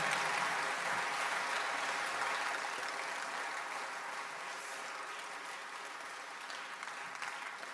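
Sustained audience applause, a dense steady patter of many hands clapping that holds for several seconds and gradually tapers slightly in loudness, with no talking over it.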